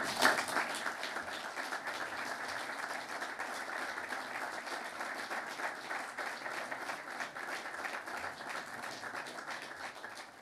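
Sustained audience applause following a speech, a dense, steady wash of many hands clapping that holds an even loudness for about ten seconds, with no voices standing out.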